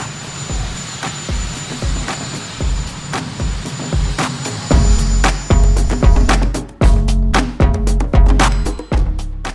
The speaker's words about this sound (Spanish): Aquí tenéis el sonido del helicóptero. Y igual lo habéis detectado, es Joe Biden